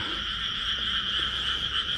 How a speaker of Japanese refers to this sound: こうやって田んぼに来てみるとカエルって結構鳴くもんですね。